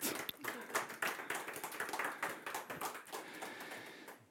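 An audience applauds warmly, many hands clapping in a dense, steady patter that holds for several seconds and then thins slightly toward the end.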